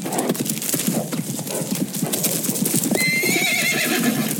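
Horses of a posse riding up to Thingamus Pass to intercept a train whinny loudly over a steady, busy clip-clop of many hooves, with a high, wavering neigh rising clearly near the end.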